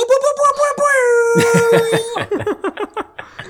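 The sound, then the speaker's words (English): A loud, sustained air horn blast signalling that it's time for the ratings holds a bright, slightly wavering tone for about two seconds, then gives way to a quick run of choppy, voice-like bursts. “heard the air horn. It's time for the ratings.”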